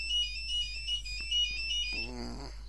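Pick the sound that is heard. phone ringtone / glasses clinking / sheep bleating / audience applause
phone ringtone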